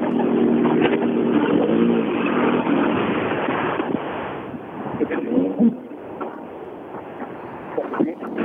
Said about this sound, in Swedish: Vi ska försöka få igång den här bilen. Det är nära nu.